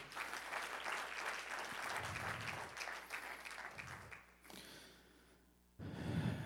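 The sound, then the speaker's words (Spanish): A church audience claps for the Lord after a sermon, in a dense, sustained burst of applause that fades briefly near the end, then swells again. Scattered claps blend into a steady crackling wash with no voices over it. “¿Por qué no le da un fuerte aplauso al Señor, por favor?”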